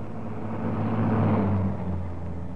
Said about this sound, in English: As the car stopped, the first post office van was already approaching.